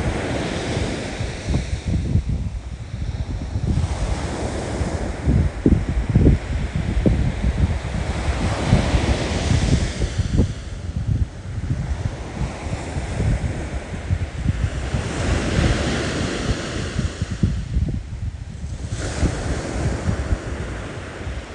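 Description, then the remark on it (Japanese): Steady ocean surf washes onto a beach, swelling and receding in broad surges every few seconds, with a constant roar of water and some wind buffeting the microphone. No one speaks. “この海にはサーフィンをしている人砂浜で遊ぶ子どもたち遠くに見える島犬の散歩をしてるお母さん本を読んでる人ゴミを拾う夫婦そしてあなたがいます”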